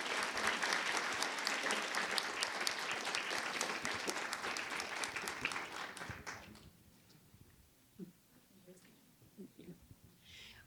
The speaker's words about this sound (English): Could I please have a round of applause for this conversation?